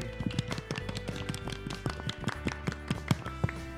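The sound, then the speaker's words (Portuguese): A small group of people claps for a few seconds at Colégio Santa Maria, welcoming a former student as she is introduced: a steady patter of overlapping sharp claps at moderate loudness over a low background hum, with no voices. “Palmas para ela, gente!”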